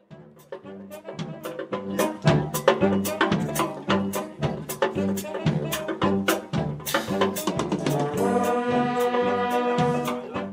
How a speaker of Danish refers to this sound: Ja, det her det er lyden af Hjemmeværnets Musikkorps, en optagelse, vi har fundet på YouTube, hvor øh, hjemmeværnets musikkorps syd spiller øh, i øh, Middelfart, og det løsner der stemningen lidt op her.